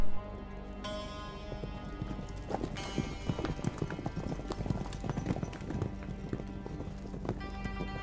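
Horses' hooves clip-clop steadily at a brisk pace as three riders travel on horseback, a dense run of sharp knocks over a constant background hum, moderately loud with no talking.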